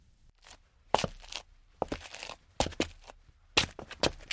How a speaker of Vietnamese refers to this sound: Anh vừa bước những bước chân nặng nề